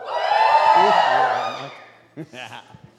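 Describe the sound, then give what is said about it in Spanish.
A church audience shouts together during a sermon in a loud, sustained burst of voices for about a second and a half, then it fades and a single voice speaks a few words. “Estos panderetos gritan.”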